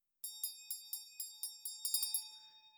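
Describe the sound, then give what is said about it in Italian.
A Tibetan ritual hand bell is rung on the second verse of a Guru Puja recitation, in a quick, steady rhythm of about ten bright strikes, quickening at the end, with a clear ringing tone that hangs between strokes. “Primo verso si por- pone il vajra in avanti, Secondo verso si suona la campana.”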